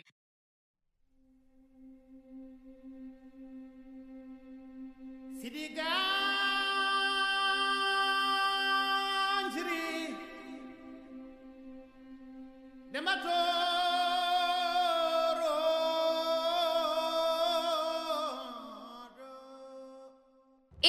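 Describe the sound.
An African chant sung in Xhosa from the Black Panther film soundtrack: a steady low drone underlies two long, loud sung phrases with rich, sustained vocal tones, separated by a brief quieter stretch.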